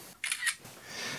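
Two quick, crisp camera shutter clicks sound in rapid succession, followed by a faint hiss of background noise. No one speaks.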